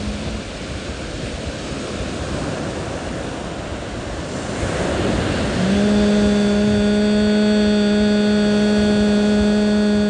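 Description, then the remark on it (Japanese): Ocean waves wash and break in a steady, rushing roar that swells louder midway, and then a person's long, steady hum, one of three hums in a breathing exercise with palms together, rises over the surf for the final few seconds. “ハミングを3回行っていきますこの波に負けないぐらい響かせていきましょう鼻から大きく吸ってうん”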